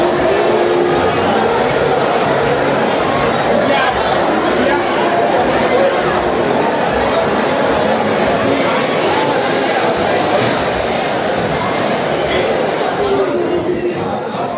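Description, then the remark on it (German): Dense babble of many people fills an indoor space near an exit, steady and loud throughout, with a low rumbling hum underneath. “Viele Leute da.”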